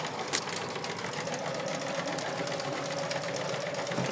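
A sewing machine stitches steadily, a fast even mechanical whirring hum with a rapid chattering rhythm and a brief click near the start, running alone without any voices.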